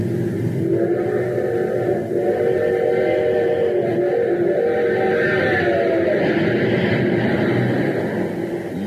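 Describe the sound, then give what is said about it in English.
An express train running on super fuel races along at full speed, a loud, steady roar of engine and rumbling wheels with a droning tonal hum running through it for the whole stretch, continuous. “Yes, sir, that train's really traveling now because it's supercharged with super fuel.”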